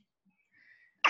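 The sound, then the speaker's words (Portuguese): A single sharp, loud sneeze bursts out, preceded by a faint, brief intake of breath, with no talking around it. “É, eu, saúde.”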